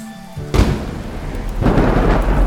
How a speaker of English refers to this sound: As soon as it was secured, we all jumped back just before a lightning bolt struck Fergus.